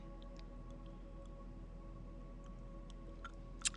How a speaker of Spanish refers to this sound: Déjame tomar un poquito de agua porque es que como cuando, cuando yo no puedo decir lo que quiero decir, se me afecta inmediatamente.